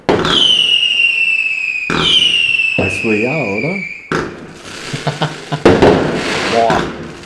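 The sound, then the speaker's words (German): Fireworks going off outside: long whistling rockets followed by a flurry of sharp crackling bangs, fairly loud, with a person talking and laughing over the noise. “Könnten Sie aufhören mit dem Feuerwerk?”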